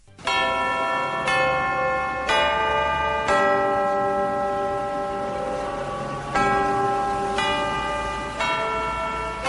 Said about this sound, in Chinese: 伴随着江汉关的钟声，大汉口迎来了又一个清晨。